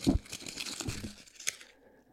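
Rustling and crinkling of paper slips being stirred around in a container, a dense scratchy shuffle for about a second and a half with one sharper crackle before fading out.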